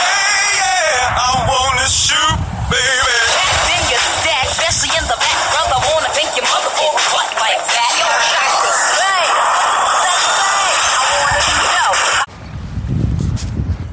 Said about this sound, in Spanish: Bueno, eh, lo que acabas de escuchar era una llamada entrante.